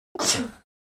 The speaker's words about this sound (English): Bless you.